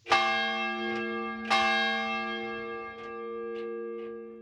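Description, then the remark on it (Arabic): A distant church bell rings the hour, tolling several slow strokes, each blooming into a long, shimmering hum that overlaps the next, with no voices present. “كان الوحيد اللي يخليك تعرف الساعه هو جرس الكنيسه لانه كان في كنيسه بعيده فبتسترقي السماء لبعيد لحتى هيك يعني تعرفي انه والله في ساعه الساعه هلا اثنين الساعه ثلاثه الساعه ثلاثه ونص من دقات جرس الكنيسه”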